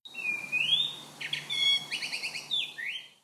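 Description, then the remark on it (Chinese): A Eurasian blackbird calls alone in a clear run of high, fluting whistles: sliding notes broken by quick stuttering bursts of repeated chips, with several phrases following one another over about three seconds. “其实都是一只，就是都是乌冬的叫声。”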